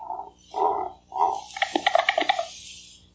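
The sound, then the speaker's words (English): An imagined call of the extinct moa bird, used as a prank to introduce the 7 a.m. news one April Fool's Day: three low, hoarse honking notes, then a quick burst of rattling, clattering pulses that fade out, with no talking. “Here's the imagined call of the majestic moa, which introduced the 7 a.m. news one April Fool's Day.”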